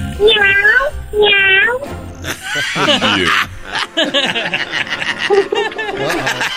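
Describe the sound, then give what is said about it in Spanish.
A person mimics a cat with two drawn-out meows, followed by chuckling and more playful meow-like vocal sounds mixed with laughter. “miau. Bravo. miau, miau.”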